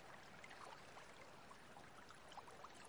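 A steady babble of a crystal-clear stream running over rounded stones, with small bright splashes and gurgles scattered through a continuous rushing wash, even in level, no voices.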